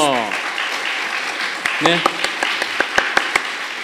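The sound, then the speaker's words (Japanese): An audience applauds steadily for a Christian pastor after his talk, a dense wash of clapping from many hands, with a few sharper individual claps standing out near the end and a brief voice heard underneath. “もう一度大きな拍手を。”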